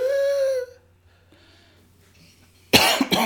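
A brief high-pitched vocal tone fades into near silence, then two loud, harsh coughs from a person who has just inhaled burst out in quick succession at the end.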